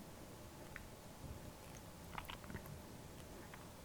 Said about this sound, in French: Puis tranquillement, vous faites un premier croc dedans et vous observez quelle sensation se dégage lorsque vous commencez à mâcher l'aliment Comment s'imprègne la salive Prenez votre temps.